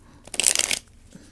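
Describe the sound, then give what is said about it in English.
A quick riffle of a deck of tarot cards being shuffled for a three-card spread, a dense burst of rapid crisp flutters lasting about half a second, with quiet before and after. “Just shuffling. Just shuffling.”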